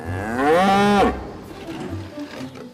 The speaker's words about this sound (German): Teile der Kuhsprache im Fachjargon Vokalisation zu entschlüsseln.